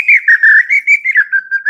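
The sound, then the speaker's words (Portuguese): A person whistles an imitation of a sabiá (thrush) song: a quick run of about nine short, bright, warbling notes that slide up and down in pitch, loud and with no other sound. “Arremedei o sabiá aí”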